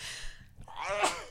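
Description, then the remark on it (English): A single sneeze, fairly loud: a breathy intake rises into a voiced 'ah' and snaps into a sharp, hissing burst, with no talking around it. “Bless you.”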